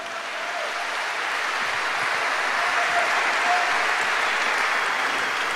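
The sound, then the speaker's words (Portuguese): An audience applauds Jesus steadily, a dense wash of many hands clapping that holds at an even, fairly loud level throughout with no one speaking. “Dá uma salva de palmas aí a Jesus.”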